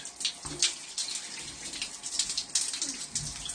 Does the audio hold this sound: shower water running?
yes